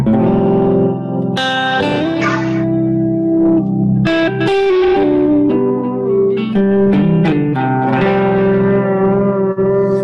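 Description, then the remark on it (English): A loud, sustained synthesizer plays a sequence of warm, harmonically rich notes through a Specular Tempest delay, each one trailing off into soft, simple delay repeats that blur into the next phrase. No one speaks. “I really I really love warm sort of simple delays.”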